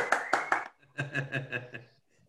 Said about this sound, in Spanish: Wow. aplausos! aplausos